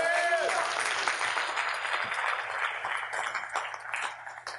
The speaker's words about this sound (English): Oh, yeah, you can give God a hand clap.